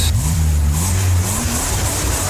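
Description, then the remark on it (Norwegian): A car engine revs up, its low pitch climbing and then settling into a steady rumble with a broad whooshing hiss over the top, no voices present. “Så hvis du faktisk er her, og ikke har kommet av et uhell at du faktisk hører på, så eh, får du bare lene deg tilbake og nyte hva som kun kan bli beskrevet som en, eh, en biltur.”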